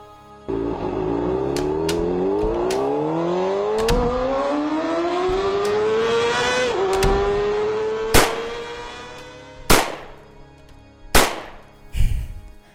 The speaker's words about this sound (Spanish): Tres disparos impactaron directamente contra la fachada de mi casa. Dos alcanzaron a entrar por la ventana y otra vez mi vida se quebraba como esos vidrios que se desmoronaban a pedazos.